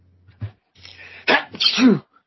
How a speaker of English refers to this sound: Oh, is that? Oh, did, did, did, you sneeze? It wasn't me.